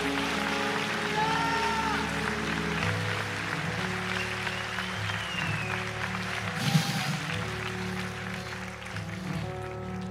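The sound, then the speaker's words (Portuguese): A crowd gives a restrained, polite round of applause, a steady even patter of clapping at moderate volume over a sustained low droning hum, with one brief louder burst partway through. “Ok, essa foi uma aplausa bem educadinha.”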